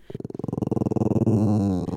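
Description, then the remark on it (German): A dog growls low for about two seconds, starting as a rapid rattling pulse and swelling into a steadier, louder rumbling snarl. No voices are heard. “Ein deutlicheres Zeichen ist zum Beispiel das Knurren.”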